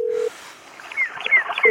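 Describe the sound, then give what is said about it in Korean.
A brief steady telephone tone gives way to a quick series of short, high keypad beeps as a number is dialed for an outgoing call to a radio quiz contestant, fairly clear, with no talking. “꼭 전화드립니다.”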